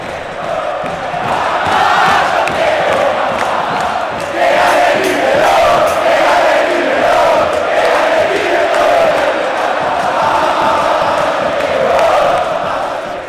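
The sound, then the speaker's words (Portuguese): A large stadium crowd of River Plate football fans sings their adapted version of a song as a rhythmic chant in unison, loud and sustained throughout, with the massed voices blending into a dense, steady roar. “Então vamos ouvir aí a versão da torcida do River Plate.”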